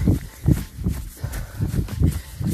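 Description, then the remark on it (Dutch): Steady running footsteps thud in a quick, even rhythm during a running workout, moderately loud, with no talking over them. “Nu laat ik jullie even in stilte een stukje rennen.”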